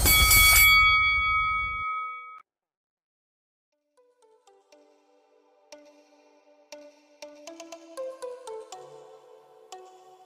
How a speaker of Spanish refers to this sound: y que suene la campana.